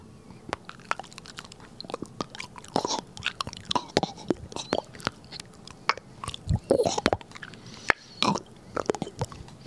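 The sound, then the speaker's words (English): Wet, squelchy clicks and smacks repeat irregularly for several seconds, fairly loud, as someone mimics with their mouth the sound of stirring a pot of macaroni and cheese. “No, that was uh, stirring a pot of macaroni and cheese.”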